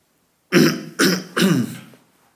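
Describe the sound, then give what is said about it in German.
Three quick, rough throat-clearing bursts in a row, fairly loud, each a harsh guttural rasp, with no speech around them. “Hustenbonschen, wenn ich nicht räuspern muss.”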